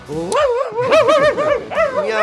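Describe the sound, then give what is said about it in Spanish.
A voice mimics a dog, producing a run of yapping, whiny bark-like yelps with rising and falling pitch for a couple of seconds. “Ha venido el perro y el gato Perro y gato.”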